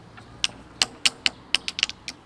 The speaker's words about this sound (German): Gehört ihr, äh, das, das sind zwei Golfschläger, da, die aufeinander tätscheln. Das liebevoll aufeinander umgeschlagen hast.